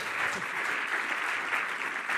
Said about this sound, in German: Ein großer Applaus